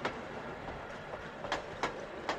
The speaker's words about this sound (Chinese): 火车在大地上隆隆地向前进着。